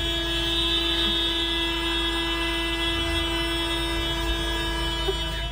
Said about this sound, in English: Everyone's honking their horns because they're pissed.